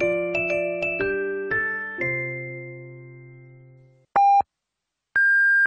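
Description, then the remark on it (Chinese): A brief chiming jingle rings out and fades, followed by Chinese radio time signal beeps marking 22:30 Beijing time: two clean, steady electronic tones about a second apart, the second pitched higher. No one speaks. “北京时间二十二点三十分。 报时中国经济”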